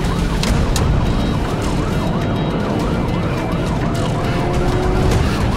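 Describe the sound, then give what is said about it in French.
A police siren wails in steady rising-and-falling sweeps throughout, fairly loud, over a constant rumble of engine and road noise, with no talking. “Oh, j'entends les flics.”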